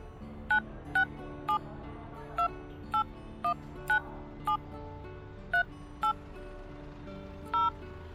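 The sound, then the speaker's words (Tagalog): A series of about eleven short mobile phone keypad beeps, each a clean dual-tone blip, tapped out at a quick uneven pace as a phone number is entered and saved to the phone book, at a bus terminal, over faint background hum. “O oh, ayan, nasave ko na sa phone book mo.”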